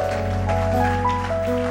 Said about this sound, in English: Clap those hands in this place.